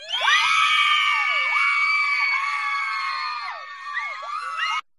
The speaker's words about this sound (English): Wait a second. The ladies are going to cheer.